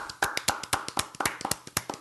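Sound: hand clapping applause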